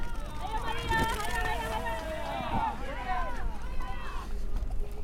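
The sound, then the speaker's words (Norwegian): At the starting shot, a pack of girls sets off on a 4-kilometre race mostly over soaking-wet grass in Vik i Sogn, Norway. Their scattered footfalls and a few soft thuds are nearly buried under loud, excited shouting and cheering from a crowd, with a steady breezy outdoor hiss. “Og da skal disse jentene springe fire kilometer, da. Stort sett på gress. Kliss blaut.”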